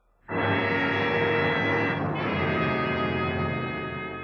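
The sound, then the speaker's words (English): A loud, buzzing drone representing a buzzing in the ears starts abruptly and holds steady for about four seconds, thick with harmonics, wavering briefly midway before continuing. No voices accompany it. “The room swims before your eyes. There's a buzzing in your ears, wiping out the sounds Russ, of the party in the next room”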